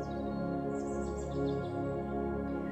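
Light, high bird chirps flutter faintly in a forest over a steady, sustained musical drone, scattered twitters rising briefly through the calm background before fading.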